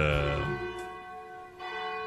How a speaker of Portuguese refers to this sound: Faltando exatamente agora 14 minutinhos para as 22 horas, bate o sino da Catedral de Nossa Senhora de Aparecida.